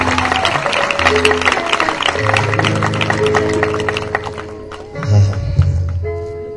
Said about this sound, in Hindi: सो मैं तमाम बुज़ुर्गों की और जितने जवान स्पेशली चर्च बिल्डिंग को बनाने में शामिल हैं उन सब की खिदमत के लिए चाहता हूँ हम ज़ोरदार ताली बजाएं खुदा के जलाल के लिए भी और अपने सारे बुज़ुर्गों